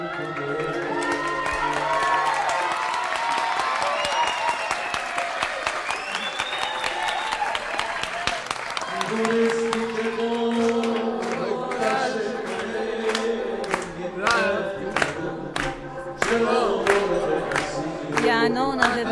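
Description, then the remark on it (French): People in a café in the south of the city clap loudly and steadily, applauding the changes introduced by President Khatami on an anniversary of the Islamic Republic, with excited shouts and chatter mixed in at first. Later the applause thins into sharper, more distinct individual claps. “nous avons applaudi à tout rompre aux changements irréversibles introduits par le président Khatami.”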